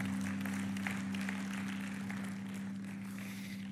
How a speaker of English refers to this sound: Come on, give a clap offering of praise to the Lord God Almighty.